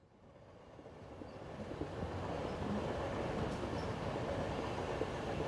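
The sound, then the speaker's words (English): Steady rumble of a moving train heard from inside a carriage on the way back to London, wheels rolling on the rails with a broad, constant roar that swells slightly louder as it goes, no voices. “As I sat on the train on the way back to London, I thought about the past few days.”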